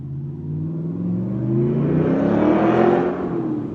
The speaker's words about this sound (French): C'est une voiture, hein, c'est pas une moto, hein, c'est incroyable, ça vrombit en dedans.